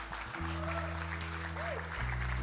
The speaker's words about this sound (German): Dankeschön. Applaus für die, die sich entschieden haben.